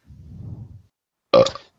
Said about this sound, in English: Well, thanks for that burp.